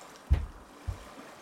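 Two soft, low slaps of water against a small boat's hull, about half a second apart, quiet, over faint background hiss with no voices.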